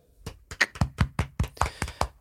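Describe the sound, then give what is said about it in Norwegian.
Brief applause from a single pair of hands for a 50-hour charity stream that raised over one million kroner for Mental Helse Ungdom: about ten sharp, even claps in a quick steady rhythm, moderately loud, with no talking over them. “Så jeg vil bare gi de en eh, en applaus.”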